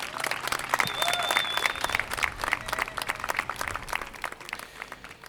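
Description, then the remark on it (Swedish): A crowd applauds outdoors at a Monday demonstration at Gustav Adolfs torg arranged by Grupper mot förvar, dense clapping sustained throughout, with a brief whistle cutting through near the start and the clapping thinning slightly toward the end. “Ja, det, var, det ni hörde precis var från manifestationen i eh, tisdags, eller hur?”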